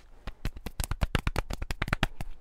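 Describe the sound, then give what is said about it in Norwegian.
A small round of applause: a few people clapping quickly and unevenly for about two and a half seconds, sharp crisp claps at a moderate level with no voices. “Da fikk kudos. vi kudos og en liten applaus.”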